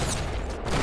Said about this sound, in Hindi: उफ गोलियों के धमाकों से कानों के पर्दे फटे जा रहे हैं दूर दूर तक की निस्तब्धता भंग हो रही थी